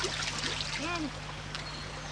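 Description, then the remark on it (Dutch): Fresh water trickles and dribbles from cupped hands, with a soft splashy wash and a brief bubbly gurgle, over a faint steady low hum. “Kom pootje baden en drinken. Hier, drink uit mijn hand.”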